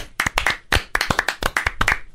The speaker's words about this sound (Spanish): Un aplauso. Bravo.